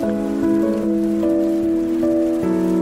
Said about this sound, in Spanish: Ya, está lloviendo.